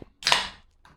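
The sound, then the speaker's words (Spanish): A single sneeze bursts out sharply and loudly, a hissing explosive blast that fades within half a second, followed by a faint brief sound afterward. No one speaks. “Salud. Gracias, gracias.”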